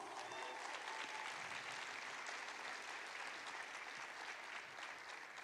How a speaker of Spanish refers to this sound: Si lo creen, denle un aplauso al Señor.